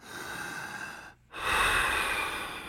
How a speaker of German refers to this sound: Aber so ein Atmen kommt dem nah.